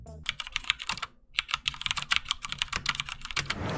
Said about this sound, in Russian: Cherry MX Red линейные геймерские переключатели, быстрые и легкие в нажатии. Ход клавиши равномерен, есть тихая версия, но она более ватная.